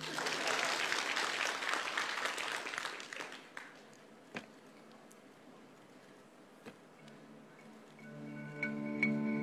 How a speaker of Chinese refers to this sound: 失败，给点掌声呗。